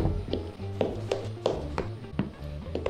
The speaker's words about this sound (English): there was a knock on the door. Hello, Sergeant? You in there?